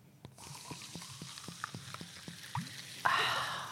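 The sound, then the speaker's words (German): Sparkling mineral water fizzes steadily, a soft hiss peppered with tiny crackling pops, then a louder rush of bubbling near the end. No one speaks. “Wir werden das testen, einen Schluck Sprudelwasser.”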